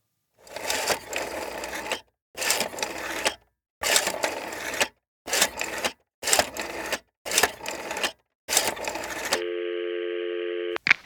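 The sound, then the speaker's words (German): A telephone rings in about seven short, loud, buzzy bursts with brief pauses between them at the start of a recorded phone call, then a steady electronic tone holds for over a second before a click cuts it off. “Das heißt, ich spiele euch jetzt das jetzt kurz einmal hier ein, das Gespräch, und ich würde sagen, äh, ja, wir switchen einfach mal ganz schnell in das Telefonat.”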